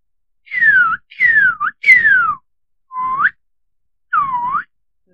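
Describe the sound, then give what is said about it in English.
A person whistles an imitation of a Northern Cardinal call: five clear, loud slurred notes, mostly sweeping downward, with brief gaps between them and no talking. “Northern Cardinal.”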